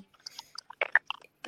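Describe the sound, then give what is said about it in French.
Irregular bursts of crackling and crunchy clicks on an audio call line, some sharp and bright, some duller, scattered unevenly across a second and a half with no one talking. “Ça grésille.”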